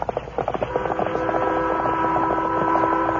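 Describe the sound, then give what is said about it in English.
A loud whistle of an eastbound train blows a long, steady, harmonic tone that holds throughout, preceded by a few rhythmic chuffing bursts at the start, with no voices. “As they approached Bent's Mountain, the Lone Ranger heard the whistle of the eastbound train.”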